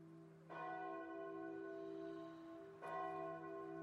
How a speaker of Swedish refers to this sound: Ring, klocka, ring. I bystra nyårsnatten.